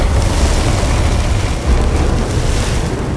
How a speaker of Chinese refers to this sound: 发现站在门内的是一头巨大的怪兽，它有着很长很长的毛，不停的、不停的震动，发出吼叫声。